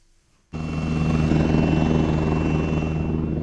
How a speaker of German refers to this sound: Da hebt er ab, der Tiger, einer von rund 50 Kampfhubschraubern, die die Bundeswehr derzeit besitzt und die fast alle in Fritzlar stationiert sind.